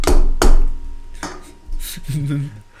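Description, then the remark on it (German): A drink can knocked against a wooden table: three sharp raps spaced unevenly, the last slightly softer, followed by someone starting to speak. “Okay, klopfen wir auf den Tisch und hören das andere Leute vom Podcast.”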